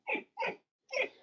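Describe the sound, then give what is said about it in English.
A dog whines in three short, high-pitched bursts, two close together and then a third after a brief pause, fairly quiet with no talking over them. “Sorry, that's my dog whining.”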